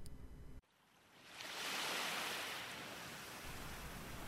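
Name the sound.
rushing river water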